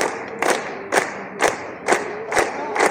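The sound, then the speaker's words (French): A recorded applause sample from a sound library's bank of applause recordings: crowd applause with a steady rhythmic beat, loud accented claps or stomps landing about twice a second over a continuous wash of clapping and crowd noise, without any talking. “il y a une banque d'applaudissements, 90 dollars.”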